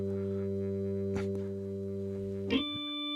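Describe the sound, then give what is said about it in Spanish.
A steady, loud electrical buzzing hum from a film projector in a movie theater during a screening drones throughout, interrupted by two short clicks, after which the hum shifts to a higher, harsher tone. “El sonido de el cinematógrafo de pronto emitió un ruido muy duro y un zumbido.”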